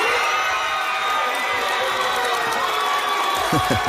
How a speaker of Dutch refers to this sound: Zo, ja. wat een geweldige reactie in de zaal.